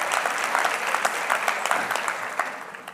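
A crowd applauds steadily, many hands clapping in a dense, continuous patter that stays at an even, moderately loud level throughout, with a few sharper claps standing out.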